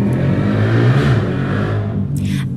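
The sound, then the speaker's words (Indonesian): A vehicle engine revs loudly and steadily in front of a house, a deep rumbling drone with rising and falling pitch, filling the whole moment with no voices. “guys sorry banget itu ada geber-geber depan rumah aku jadi kita lanjut aja nggak apa-apa ya”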